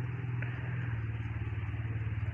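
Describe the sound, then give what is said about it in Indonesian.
A motorcycle passes by in the rain on muddy ground, its engine a steady, throaty rumble that holds fairly loud throughout, with a faint outdoor hiss in the background and no voices. “mana hujan mana becek mana motor lewat”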